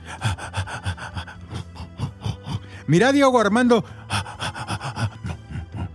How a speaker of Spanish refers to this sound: Y ese era yo jadeante porque lo tuve que perseguir por toda la cancha